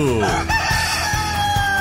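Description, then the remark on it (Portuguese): The curious rooster of a morning radio show crows loudly, one long drawn-out cock-a-doodle-doo filling the moment, with a faint steady thumping beat underneath. “Comece suas manhãs na companhia do GG Cunha e seu galo curioso.”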